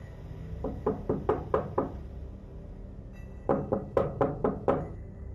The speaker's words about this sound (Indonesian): Sampai sekitar tengah malam, tiba-tiba ada suara yang mengetuk pintu.